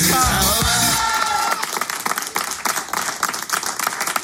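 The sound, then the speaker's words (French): An audience bursts into applause and cheering, with dense, loud clapping and a few voices shouting over it in the first second before settling into steady, crackling applause. “On applaudit bien bien”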